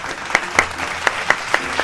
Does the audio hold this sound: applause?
yes